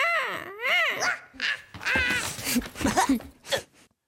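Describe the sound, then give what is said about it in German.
Black-headed gulls give a run of loud, harsh, laugh-like calls, several rising and falling cries in quick succession, clear with no talking. “Eine kichernde Hyäne und lauter lachende Möwen”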